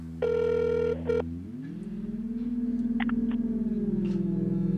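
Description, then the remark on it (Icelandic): On an outgoing telephone call, the ringing tone sounds in bursts, then the call is answered and gives way to a steady low hum of a connected line with a few faint clicks, heard clearly with no voices. “við ringdum í hann sko, og við byggumst við, við að fá bara símsvaran en uh, hann, hann svaraði símanum”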